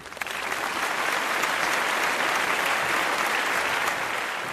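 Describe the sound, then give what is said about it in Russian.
A large crowd in a packed concert hall claps continuously, applauding a performance of songs with guitar accompaniment, a dense, steady wash of applause that swells in quickly and holds at an even, fairly loud level throughout, with no voices standing out. “Переполненный зал горячо приветствовал Галича и покрывал аплодисментами исполнение его старых и новых произведений”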